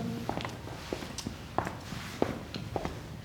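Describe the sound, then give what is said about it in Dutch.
Footsteps walk at a steady pace across a hard floor as people walk through to the next room, several distinct treads in a row with a faint hum behind them and no talking. “Maar eh, we lopen nog even door naar de volgende ruimte.”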